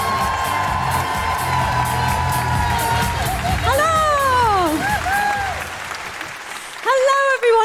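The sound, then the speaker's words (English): A live audience bursts into sustained applause with whoops and cheers, welcoming a performer, dense clapping filling the space for several seconds before a few shouted voices and the noise begin to taper off. “Put your hands together and make incredible and wonderful noises for the all over the television, the fabulous, the incredible, the super talented”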